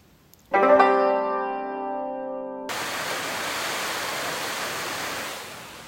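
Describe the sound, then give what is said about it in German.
A brief sustained musical tone gives way to a steady, dense rush of heavy pouring rain and stormy gusting wind outside, a constant roar without speech. “Ja, ich weiß nicht, ob man das jetzt gerade gut gehört hat, aber bei uns draußen regnet es sich wohl heute ein. Es stürmt und windet und regnet immer noch in Strömen”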